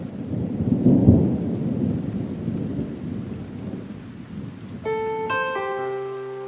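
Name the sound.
rain with thunder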